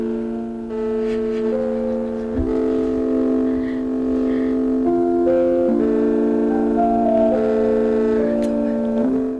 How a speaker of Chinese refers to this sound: 好，第一个你们会听到是一个很柔、嗯很轻柔的和弦，它听起来是这样。